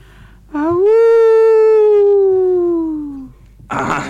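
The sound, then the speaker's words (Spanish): A person imitates a wolf howl: one long, loud, voiced note that swoops up, holds, and slowly sinks over nearly three seconds, followed by a brief breathy rush of noise. “hacía de lobo”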